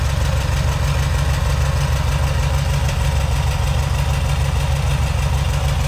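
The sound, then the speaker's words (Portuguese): A generator engine runs steadily with a loud, low rumbling drone and a constant fast mechanical throb, no pauses or changes in speed, and no one speaking, as it is run to show how the generator works. “Eu vou tirar aqui o, a, a conexão, o, a proteção dele para a gente medir, para que eu possa mostrar para vocês como funciona o gerador.”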